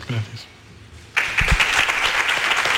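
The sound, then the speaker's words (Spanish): After a brief, quieter moment with a faint voice, loud crowd applause bursts in abruptly following the appearance of president Aro and Ramón Planes, and continues as a dense, steady wash of many hands clapping. “Este es el aplauso tras la mm, aparición, en primer lugar, del presidente Aro, sus primeras palabras y la de Ramón Planes.”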